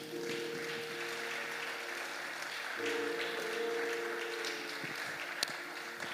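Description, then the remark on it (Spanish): A church audience breaks into sustained applause and cheering as an ovation to the King of Kings, a dense steady wash of clapping with a low sustained organ-like tone underneath throughout. “Dale una ovación al Rey de Reyes.”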